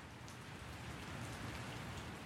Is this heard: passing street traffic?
no